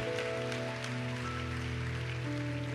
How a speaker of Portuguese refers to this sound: Vamos aplaudir.